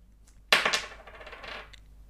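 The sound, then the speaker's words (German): A coin is flipped and lands on tails with a bright metallic clatter, rattling and spinning briefly on a hard surface before settling, fairly loud with no one speaking. “Und ähm, jetzt musst du nochmal die, die Münze sprechen lassen.”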